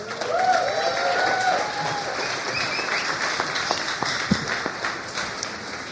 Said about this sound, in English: So, you guys give him a hand as he comes.